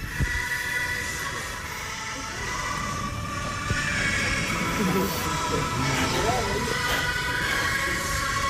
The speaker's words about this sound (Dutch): Oh nou, wil een stukje horen, want ze wil het aanpassen, het Overijssels volkslied.